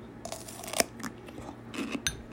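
Crisp crunching as someone bites into daikon radish pickled with yuzu, a few sharp bites followed by scattered crackly chewing, fairly quiet with no talking.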